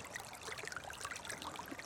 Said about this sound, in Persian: و ما با صدای آب جاری به خواب رفتیم